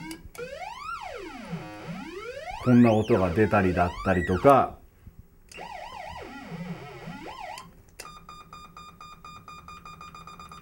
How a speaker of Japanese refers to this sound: こんな音が出たりだったりとか、まあ、要はいわゆるサイレンの音が出るマシーンなんですね。